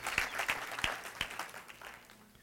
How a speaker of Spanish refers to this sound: Él tiene una, sí, vamos a darle un aplauso al Señor.